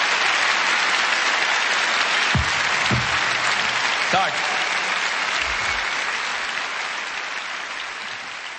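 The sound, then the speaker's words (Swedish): A sold-out audience at a live concert in the Globen arena in the 1990s applauds steadily, a dense wash of clapping that holds constant for several seconds, with a few faint low thumps and scattered voices underneath. “En liveinspelning från en av hans fullsatta Globen-konserter där i under 90-talet.”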